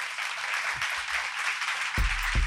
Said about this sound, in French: Peut-être qu'on va les laisser finir avec des beaux applaudissements. Merci.